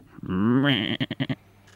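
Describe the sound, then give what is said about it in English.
A goat bleats loud: one drawn-out, quavering cry that breaks into a quick stutter of four short pulses, then fades to quiet. “And so, having broken the chain of his shackles with a rock, the goat set out back the way he came and towards Mongolia.”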